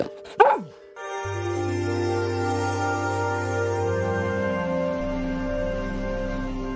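A NASA sonification of space images: a brief sliding chirp opens, then layered synthetic drones settle in, a deep steady hum under shimmering sustained high tones, with no voices.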